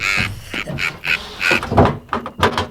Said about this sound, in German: Da klopfte es plötzlich an der Tür. Hä? Na nur, wer kann das denn sein?